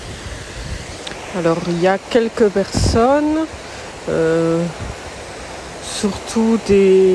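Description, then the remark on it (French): A steady, continuous wash of rushing water from the Trevi Fountain in Rome fills the background, while a person talks over it in short phrases. “Ça, c'est le bruit de la fontaine de Trévis.”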